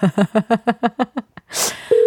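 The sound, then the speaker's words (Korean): After a call cuts off, a quick run of about eight even, buzzy beeps and a short burst of hiss give way to a steady telephone dial tone that starts abruptly and holds. “아쉽게도 전화를, 예, 통화가 안 되나요?”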